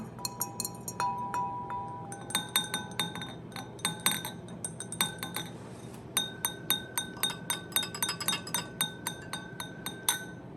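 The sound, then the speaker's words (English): Christmas cups, bought at a garage sale, clinking together again and again at a bar in quick, irregular bursts, bright ringing glassy taps with a steady low background hum beneath. “These Christmas cups we got at a garage sale.”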